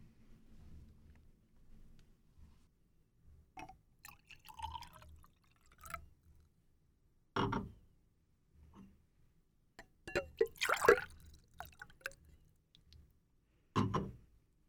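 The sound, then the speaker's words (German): A refill of a drink is poured into a glass, with soft trickling, a few drips and light clinks of glass in short bursts over a quiet, low hum. No one speaks. “Äh, soll ich dir nochmal nachschenken?”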